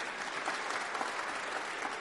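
A church audience claps together in steady, dense applause to welcome a newcomer during a service, many hands blending into a continuous wash of sound without pause.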